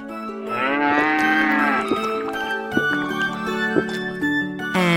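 A cow moos loudly, one long drawn-out call rising then falling, followed by lower, rougher lowing for several more seconds with no talking.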